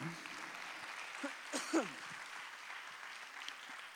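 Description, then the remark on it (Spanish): An audience applauding for Jesus, a steady, dense wash of clapping that fills the whole stretch without pause, with a brief voice calling out briefly about halfway through. “Dile un aplauso a Jesús si puede.”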